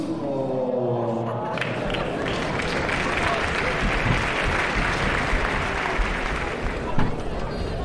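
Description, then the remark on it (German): A large crowd at a choir event applauds steadily, a dense wash of clapping mixed with general chatter and commotion, with a voice briefly audible at the start before the noise fills everything. “Wie du hörst, äh, ist hier ein Riesendurcheinander, ähm, auch äh, mit einer Absprache vorher ist hier kaum durchzukommen.”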